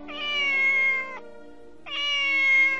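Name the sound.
cat meowing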